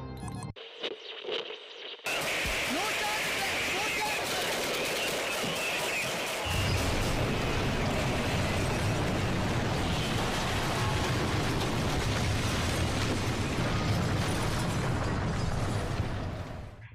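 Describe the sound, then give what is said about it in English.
A short burst opens, then a dense, loud wall of battle noise of gunfire and explosions from an attack on a convoy on a highway outside Barstow, New Mexico, rises, with a heavy low rumble joining partway through and continuing steadily to the end. “The convoy is attacked, and the vehicle with the destroyer commandeered.”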